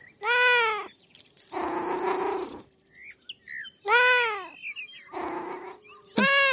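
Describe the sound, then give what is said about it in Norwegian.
A cat meows three times, each call a clear, rising-and-falling cry, with breathy, hissing sounds in between. The cat is fairly loud, and no one speaks. “Og så får hun en liten katt til å trøste seg med, men en dag mister hun katten sin.”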